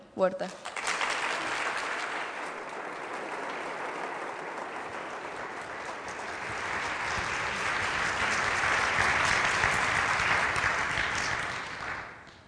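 Sustained applause from a large audience welcoming activist Dolores Huerta as a speaker, lasting about twelve seconds, a dense wash of clapping that swells slightly midway before tapering off at the end.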